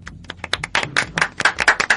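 A short round of applause from a small group in a radio studio, for guests on air, quick irregular hand claps overlapping and building slightly louder toward the end, with no voices.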